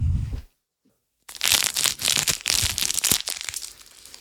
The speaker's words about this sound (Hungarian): kinyit egy MSG-s zacskót, és ki fogja önteni valamibe.